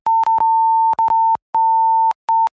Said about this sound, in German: aber ich weiß nicht, ob ich das piepsen soll oder nicht.